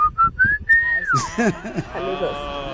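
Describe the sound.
A family signature whistle, sent in by a listener from Ciudad Juárez, Chihuahua: three quick, clear notes followed by a long held tone that slides downward, loud, then voices start talking right after it.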